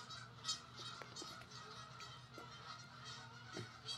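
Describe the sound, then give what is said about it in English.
A flock of geese honks repeatedly, overlapping harsh calls coming in bursts, with a steady low hum of outdoor background beneath them and no talking. “I guess we didn't get invited to the, the goose orgy.”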